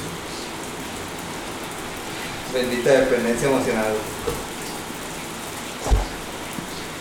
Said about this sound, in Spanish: es que está lloviendo. Ya se va a ir.